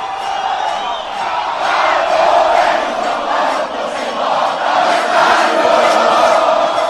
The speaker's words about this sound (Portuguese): Essa é a torcida. Essa é a torcida. Essa, essa torcida é um espetáculo